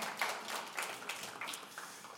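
A crowd at a One Fellowship church morning service applauds a Bible reading. The applause is a steady, crackling wash of many overlapping claps, bright and fairly soft, with a few sharper individual claps standing out before it gradually thins.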